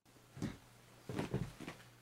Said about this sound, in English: I'm going out the door.